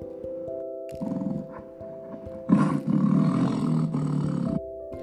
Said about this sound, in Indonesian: Terdengar suara lolongan harimau. Kak, suara apakah itu? Ujar Gretel dengan bergetar ketakutan.